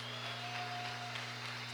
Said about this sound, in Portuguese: Amém e amém. Aplauda o Senhor e dê um glória a Deus.